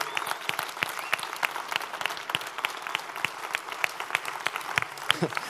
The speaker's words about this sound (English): And so for one, like for one month and one day, I just want to ask you, could you please stand to your feet in this, in this auditorium and give them the greatest applause of love and appreciation for all they give.